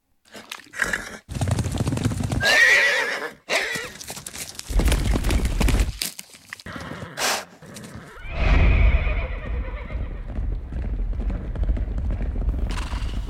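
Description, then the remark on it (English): A horse whinnies loudly, its neigh rising and shaking, while hooves clip-clop in a steady rhythm and the animal snorts amid some rustling movement. “time to head for the stables. Saddle up, partner.”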